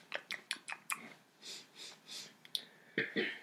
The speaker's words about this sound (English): All right, I'm gonna try not to blow my nose. I'm gonna try not to blow my nose. the rest of the podcast, but I, you might hear a lot of this.